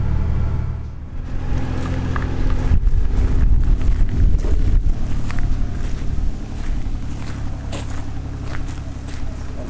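A tractor engine rumbles steadily outdoors on Själö island on a July day, carrying goods from the ferry boat to the university's main building, its low drone growing louder in the middle as it passes, with wind buffeting the microphone and occasional clanks and crunching sounds.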